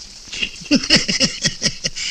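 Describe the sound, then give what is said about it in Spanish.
Steady hiss of falling rain fills the background, with a run of short, rhythmic voice-like bursts rising over it. “¿Sabes cómo la viene esta lluvia al campo?”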